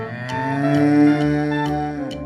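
A cow moos in one long, steady, droning low call lasting a couple of seconds. Faint ticking beats repeat at regular intervals, and no one speaks.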